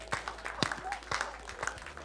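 An audience applauds for the Lord Jesus with a steady patter of overlapping claps, a few sharp louder hits standing out at irregular moments, moderately loud and sustained throughout.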